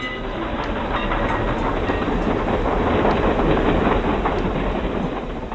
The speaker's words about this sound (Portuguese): E sons criados pela nossa espécie, como um trem.